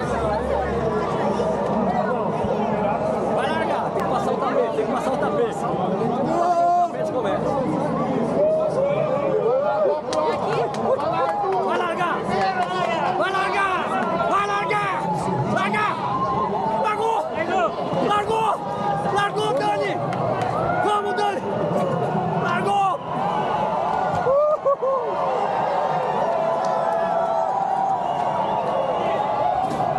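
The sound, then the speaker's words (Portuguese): A dense crowd noise of runners at a street race: steady overlapping chatter and babble of many people, with footsteps and occasional shouts, loud and continuous throughout with no single voice standing out. “Essa parte aqui, eu vou deixar só o áudio, vou até tirar, me deixar no mudo aqui, só para vocês escutarem o barulho que é essa prova, cara, essa parte aí.”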